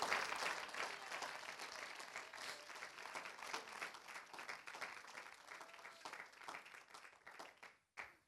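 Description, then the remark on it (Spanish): An audience applauds steadily as applause to the Lord, a dense wash of many hands clapping at once that holds fairly even for about eight seconds before cutting off abruptly. “le ese aplauso al Señor.”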